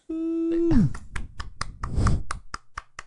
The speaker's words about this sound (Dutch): applaus